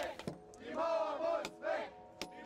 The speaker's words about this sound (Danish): Men pludselig en aften sker det her. Menneskemængder råber. Muren må væk! Muren må væk!